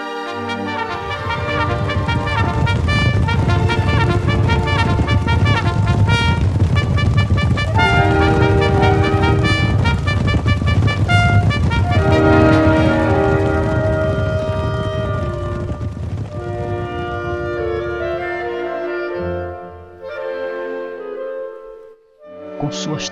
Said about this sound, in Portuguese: E não demorou para aquele avanço da cavalaria está recuando, ordenado por toques insistentes de corneta.